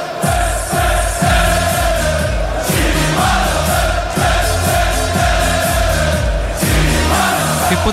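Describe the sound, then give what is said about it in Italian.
A large crowd of football fans sings a loud, rhythmic chant about Wainaldum together, steady and dense for the whole stretch, with a regular pulsing beat running underneath. “Intanto sì, c'è il coro in sottofondo legato a Wainaldum.”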